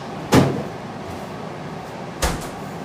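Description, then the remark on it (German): A refrigerator door is opened and then shut about two seconds later, each a short thud with a faint rattle, separated by a quiet stretch of room tone, as something is put back into the fridge. “Ah, den muss ich wieder in den Kühlschrank.”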